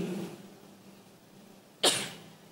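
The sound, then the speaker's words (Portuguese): A single sharp, loud sneeze from the speaker bursts out near the end, after a stretch of quiet with a faint low hum. “Ninguém merece espirrar no meio da palavra, né?”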